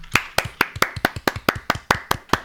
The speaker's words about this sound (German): jetzt können wir ruhig mal klatschen, warte. Ja, warte.